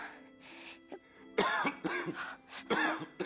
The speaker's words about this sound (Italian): ma voi avete la tosse? State male? Ho avuto la polmonite tempo fa e ho ancora la tosse qualche volta.